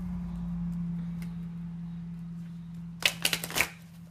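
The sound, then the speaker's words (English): A quick burst of tarot card shuffling near the end, several crisp riffling flutters in rapid succession, fairly loud, after a stretch of low steady hum. “There we go. We are shuffled.”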